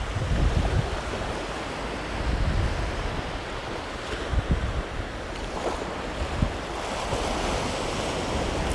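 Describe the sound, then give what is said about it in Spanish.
Ocean waves wash steadily onto a beach, a continuous roar of surf that swells and recedes in gentle surges, with some wind noise and no voices. “Si nosotros pensamos que la abundancia está afuera, nos olvidamos de caminar descalzos en la arena, calentita por el sol, y dejarnos acariciar por las olas del mar.”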